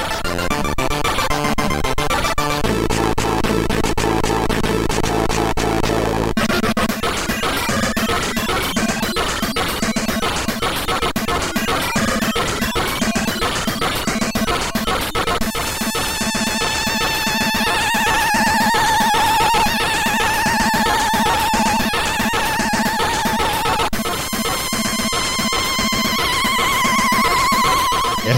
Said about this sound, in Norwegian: huske at jeg syns denne trommesoloen i Trust-musikken var så fantastisk. Det var først jeg hørte en trommesolo i et Commodore 64-spill. Med denne synten som kommer inn og drar oss tilbake i melodien.